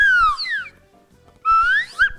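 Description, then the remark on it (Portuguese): A whistle is blown softly in two short bursts, the first tone gliding downward and the second sliding upward, clear, with a few low knocks underneath and no talking. “Eu queria um apito que funcionasse 100%, porque esse aqui às vezes se apita muito forte, ele não...”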